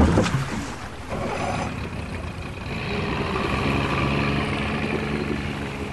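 A motorboat engine drones steadily out on a lake, a continuous low throbbing hum with a broad wash of water noise, loud throughout, with no voices.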